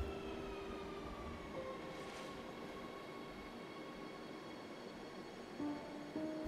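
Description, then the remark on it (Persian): A train rumbles steadily, its heavy low roar overlaid with thin, sustained metallic squeals and whining tones as it comes to a stop at an old station outside the city. No voices are heard. “قطار که وای میساد یه گوش عقبتر از بقیه منتظر میموندم”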